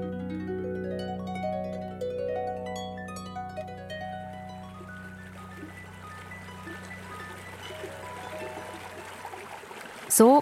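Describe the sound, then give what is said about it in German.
Water from a spring in the Val de Travers, canton of Neuchâtel, Switzerland, wells up and flows in a steady, continuous stream, its gurgle carrying resonant, almost tonal hums that slowly give way to a broader rushing wash. “klingt die Quelle von noir im Val de Travers, Kanton Neuenburg.”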